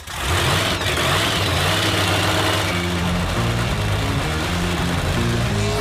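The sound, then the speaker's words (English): Race car engines roar to life and settle into a loud, throaty idle, with the rumble rising and dipping in short throttle blips. No voices. “Milwaukee, start your engines.”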